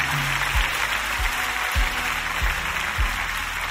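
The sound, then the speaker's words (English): An audience claps together in a dense, steady burst of applause that keeps going throughout, with a few low thumps underneath and no voices. “I don't know why you're not clapping because we can use that to help people.”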